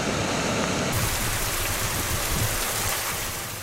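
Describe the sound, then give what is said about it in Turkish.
A dense, steady roar of heavy rain pours down continuously, loud, with a hissing wash of water that fills the whole clip and no voices, during a downpour and storm in Adana, Kozan and the Kadirli district of Osmaniye. “Adana, Kozan ve Osmaniye'nin Kadirli ilçesinde ise sağanak ve fırtına etkiliydi.”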